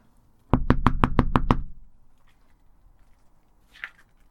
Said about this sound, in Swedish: och jag närmar mig med beslutsamma men ändå lite trevande steg en anonym blå plåtdörr ner till en källarlokal. Ska se vad som händer när jag knackar på.